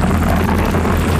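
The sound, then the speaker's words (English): A motorcyclist's denim jeans shredding against the road in a low-speed crash: a loud, harsh, continuous scraping roar with a low rumbling hum beneath, holding steady for just over a second, no voices. “This is the sound of a motorcyclist's jeans being shredded to pieces in a low speed crash.”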